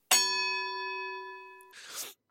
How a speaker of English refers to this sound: He really likes that bell. I I mean, it's Bart.